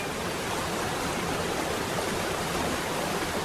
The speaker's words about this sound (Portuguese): Parque Nacional da Chapada dos Veadeiros é reconhecido como Patrimônio Natural Mundial pela Unesco. Muralha, franjas, bujão e parafuso são os nomes das formidáveis quedas das cataratas do Rio dos Couros.